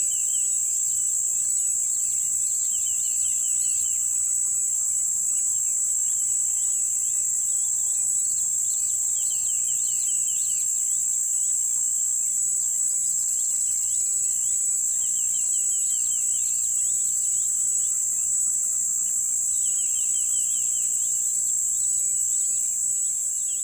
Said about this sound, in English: I have a couple of recordings that are completely ruined by cicadas. I left the gear out recording uh, tied to a bush, and then some cicada just uh, decided they wanted to call really loudly from the same bush.